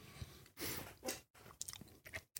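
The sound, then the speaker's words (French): Close-up chewing of candy right against the microphone, with wet, sticky mouth sounds and a few sharper crunchy bites in quick succession, with no talking. “C'est horrible quand, tu, mâches et que tu avales comme ça au micro.”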